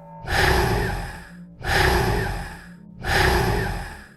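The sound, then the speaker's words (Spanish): Three loud, rasping breaths repeat in a steady rhythm, each a rough, hissing rush with a deep rumble underneath, like the eerie breathing of a fierce animal, a strange noise coming from a hallway wall. No one speaks. “Fue entonces que comencé a escuchar un ruido extraño. Era como el respiro de algún animal feroz.”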